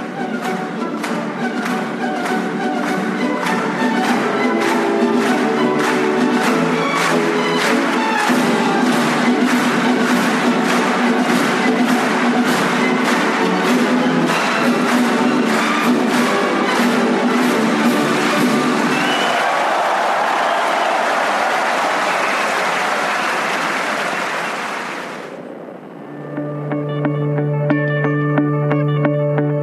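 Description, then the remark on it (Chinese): An orchestra plays the Radetzky March, loud and bright, with an audience clapping along in a steady beat. The clapping drops away, and the music swells and ends on a sustained chord. “你现在正收听到的，是会让所有观众欢欣鼓舞的拉德斯基进行曲。”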